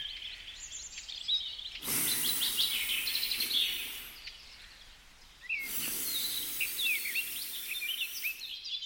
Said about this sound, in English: Let's listen again, but this time an audio recording from the Blue Forest in Halle, Belgium. Here you can hear the beautiful sound of birds chirping, and if you listen more closely, the leaves dancing in the wind.